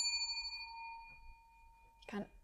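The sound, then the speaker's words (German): A small bell rings out with a clear, bright tone that hangs and slowly fades over about a second, followed by a short burst of someone speaking. “Ich habe gedacht, wenn ich es wieder so anfasse, dann hört es auf, aber es klingt für immer weiter.”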